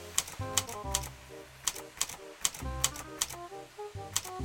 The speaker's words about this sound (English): went to the beach and, as you must know by now, set his camera shutter clicking like a miniature machine gun.